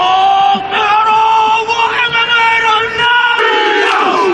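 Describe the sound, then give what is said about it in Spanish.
A Maori haka war chant roars through a stadium: a large group of voices shouts and chants loudly in unison, with sustained tones and rhythmic bursts over a wash of crowd noise. “Son fascinantes las jacas.”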